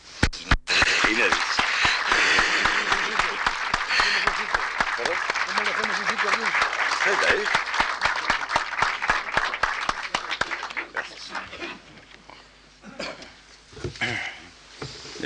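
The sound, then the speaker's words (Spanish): An audience applauds to ask a poet to recite one of his poems, a steady, dense wash of many hands clapping that holds strong for most of the stretch, then thins and tapers off near the end. “le pidamos al poeta con nuestros aplausos que nos recite alguno de sus poemas.”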